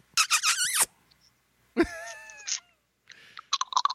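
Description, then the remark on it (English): A person makes a quick run of squeaky, smacking kissy noises with their lips: a shrill burst, a sliding squeak, then a rapid flurry of little smacks. “No, and you don't feed me and you don't make kissy noises at me.”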